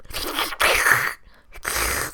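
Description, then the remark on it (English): A voice imitates someone slurping ramen noodles in three wet, hissing bursts, the middle one loudest, with brief gaps between them, fairly loud with no talking. “He- sucking up ramen.”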